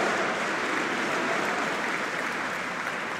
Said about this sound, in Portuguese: Creio que está praticamente, pelo menos daquilo que consigo ver daqui, praticamente toda a sala de pé a aplaudir João Coutinho Figueiredo.